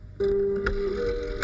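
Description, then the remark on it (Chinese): A telephone rings with a steady, mid-pitched electronic tone held for over a second, broken by a couple of sharp clicks. No one speaks. “小何姑娘，电话。”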